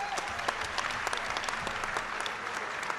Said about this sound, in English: isn't he brave for doing this? I think you should give him a round of applause.